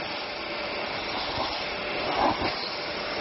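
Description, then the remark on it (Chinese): A steady, loud vacuum cleaner roar with broad hiss drones throughout, with a few brief crackling swells rising over it near the end as it sucks at a fire of burning cardboard boxes in a simulated household fire; the heat melts its hose and head. “接下来呢，我们就要模拟家中的杂物还有家具着火的时候，像这样的吸尘器到底能不能顺利的应对？”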